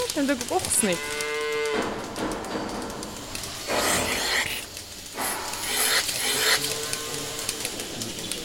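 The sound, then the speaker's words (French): Cows moo a couple of times in a milking parlour at an agricultural school during milking, one long low call early on and another near the end, amid bursts of clanking and hissing milking machinery. No one speaks. “On vient de faire monter les vaches dans la salle de traite.”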